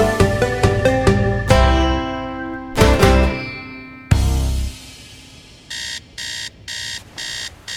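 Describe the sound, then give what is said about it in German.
A bright chiming musical jingle fades out, then an electronic alarm clock starts beeping in steady, evenly spaced bursts, loud, with no voices. “Ist ja schon gut, du Wecker.”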